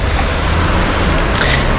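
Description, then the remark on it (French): Steady street traffic with cars rumbling past, a loud continuous wash of engine and road noise filling the short stretch with no clear pauses. “Des voitures, mais je pense pas qu'elles manifestent.”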